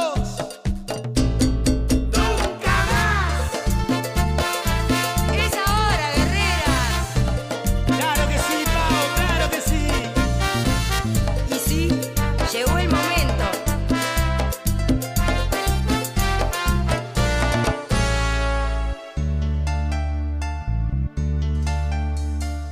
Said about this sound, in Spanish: Vamos a traer un tema ahora